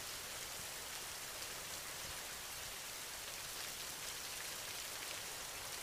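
Steady, continuous rain falls with a dense, even hiss, moderately loud, no breaks or talking throughout.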